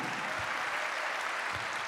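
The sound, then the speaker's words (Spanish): An audience at a Christian worship service claps steadily for the Lord, a dense, continuous wash of applause from many hands filling the space, with faint low thumps underneath and no clear talking. “Dale un aplauso al Señor, hermano, a su nombre sea la gloria.”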